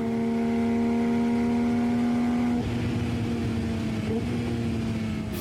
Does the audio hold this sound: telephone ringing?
no